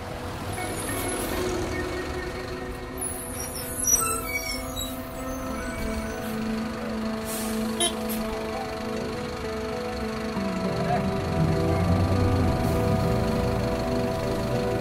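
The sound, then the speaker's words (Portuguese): A city bus's diesel engine rumbles, its pitch dropping as it slows to a stop, with short hissing bursts of air brakes in the street noise. “Vamos de ônibus, amiga. Aproveita que tá vindo uma ali, ó.”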